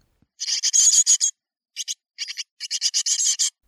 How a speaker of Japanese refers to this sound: 実際は今のはヒナが親鳥に餌をちょうだいって求める声。